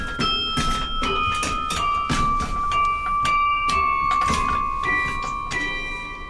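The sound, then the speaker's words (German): Carillon bells struck again and again as the carillonneur adjusts the length of their wires before playing, about a dozen sharp metallic hits at an uneven pace, each leaving a bright ringing tone that hangs underneath, fairly loud, with no talking. “Das ist also die Arbeit, die der Glockenspieler vor jedem Spiel machen muss. Die Länge des Drahtes einstellen.”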